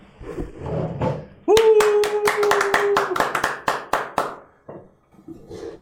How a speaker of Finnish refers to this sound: Pitäisikö meidän pistää nyt standing ovation täällä sitten? Noustaanko me ylös tästä? Totta? Noustaan, totta hemmetissä.